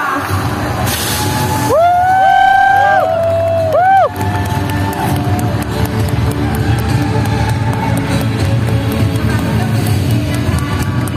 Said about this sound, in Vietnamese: ขอเสียงปรบมือดังๆให้กับนักเรียน